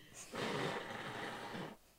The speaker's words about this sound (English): I have a snot face in front of my sister right now. you can blow your nose.